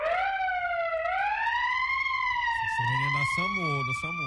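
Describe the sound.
A police siren wails steadily, its tone slowly rising and sweeping, loud and close, while a man's voice cuts in underneath during the last second and a half.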